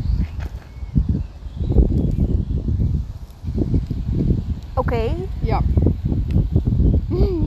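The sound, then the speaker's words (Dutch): Strong gusts of wind roar and rustle leaves in a park after dark, steady and loud throughout, while people talk briefly over it and a bird chirps once in the middle. “Waarom waait het altijd heel erg hard op het moment dat het donker is?”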